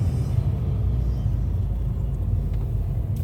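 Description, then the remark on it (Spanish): A car engine rumbles steadily at low pitch, constant throughout, as the car is being parked, with no one talking over it. “Bueno, voy a aparcar, voy a ver qué me dicen de mi coche y, y ahora, ahora al salir os cuento el resultado.”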